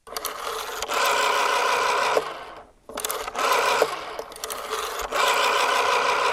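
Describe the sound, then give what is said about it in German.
A rotary dial telephone being dialed: several loud, steady mechanical whirs as the dial spins back, each lasting a second or two and separated by brief clicks and pauses. “ich weiß noch, wie ein Wählscheibentelefon klingt. Ich habe dir den Sound mitgebracht.”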